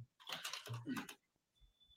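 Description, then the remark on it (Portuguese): Loud, rapid clacking of a noisy computer keyboard being typed on, dense bursts of keystrokes followed by a quieter pause with a faint high whine. “Você tá, tá, te incomodando o meu teclado?”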